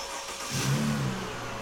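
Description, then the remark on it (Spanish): A van's engine turns over and catches, then revs up into a steady, droning hum, fairly loud, with no voices. “Entramos a la camioneta, nos abrochamos los cinturones y mi padre encendió el motor.”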